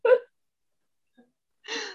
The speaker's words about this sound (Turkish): Hıçkırık. Hıçkırık tuttu.